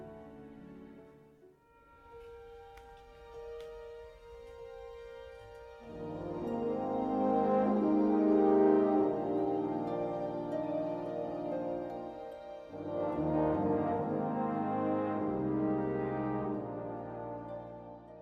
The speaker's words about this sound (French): on va tout de suite écouter la musique de …, …